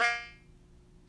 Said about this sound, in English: Uh oh. Glitching. You glitched out. What's going on? She's gone. It can't be me. I think her phone died.